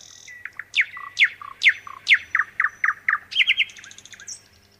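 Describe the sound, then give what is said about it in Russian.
A nightingale sings alone at night under moonlight, clear, with a run of rapid repeated whistling sweeps in steady rhythm, ending in a quick trill and a few higher notes. “И через минуту луна освещала детей и лошадей, крепко спавших под пение соловья.”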